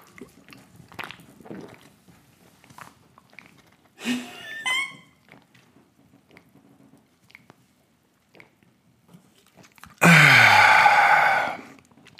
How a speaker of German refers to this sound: das ist das Gin Tonic. Okay, pass auf, ich ich trinke das jetzt aus der Dose, ich trinke das jetzt nicht aus dem Glas. Go.